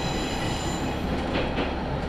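A Tenryu Hamanako Railway local train, the Takarakuji-go, rolls steadily along the tracks from Kanasashi to Tenryu-Futamata, a continuous loud rumble with a faint high whine of wheels and brief swells of hiss; no one speaks.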